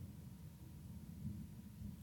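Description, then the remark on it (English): A low, steady rumble of rolling thunder fills the moment, faint and continuous with a slight swell partway through, and no voices over it. “Hey, there's some of that thunder.”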